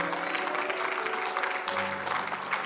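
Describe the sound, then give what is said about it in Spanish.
A crowd applauds steadily for a few seconds, a dense wash of clapping at an even, fairly loud level, with a faint sustained tone humming beneath it. “Usted debería haber aplaudido por lo menos.”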